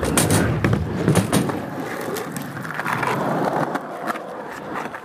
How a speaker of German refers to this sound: bald nach der Eröffnung der Skateboardanlage begannen sich einige Nachbarn über die Geräuschkulisse zu beschweren.